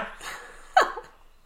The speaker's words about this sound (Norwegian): jeg bare, jeg bare gjesper litt. Uff a meg. Unnskyld, da. Nei, men, altså, det, jeg er ikke sånn som Jeg gjesper fordi jeg trenger litt oksygen.